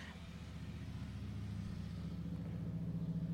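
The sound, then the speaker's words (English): A motorcycle engine rumbles past, a steady low growl with buzzing harmonic tones that shift and climb slightly in pitch, holding fairly loud for a few seconds with no talking. “a motorcycle literally went by as i'm recording that”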